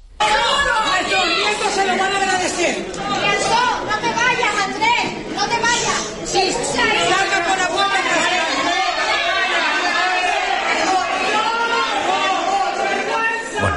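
A loud, dense crowd of many voices shouting and clamoring together in protest at a plenary meeting of the Cabildo (island council) of Fuerteventura, Spain, crying out about buying votes, bribery and shame, overlapping cries rising and falling continuously without pause.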